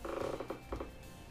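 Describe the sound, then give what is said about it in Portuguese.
A short mechanical creaking and ratcheting as an electric fan is moved, with a few squeaky clicks in quick succession and no talking. “Coisa o ventilador aqui.”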